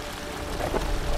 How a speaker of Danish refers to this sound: Og det er de eneste lyde, der er på gletsjeren. Ens egne støvler, der rammer overfladen af isen. Lidt vind, isen der knirker i ny og næ, og smeltevand, der strømmer ned i små bække på overfladen.